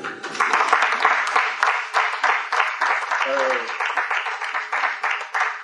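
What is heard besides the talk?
audience applauding loudly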